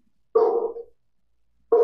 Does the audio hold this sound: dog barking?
yes